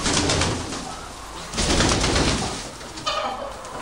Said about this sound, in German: Einige der aktiveren Tiere flattern mit den Flügeln.